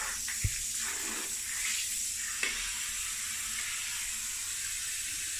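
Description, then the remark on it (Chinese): Running water rinses a dog in a steady, even hiss that holds throughout, broken only by two brief soft knocks early on. No one speaks. “把头弄下去啊！你这样我怎么给你冲啊？”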